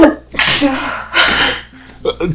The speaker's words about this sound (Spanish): voy a estornudar. ¡Achú!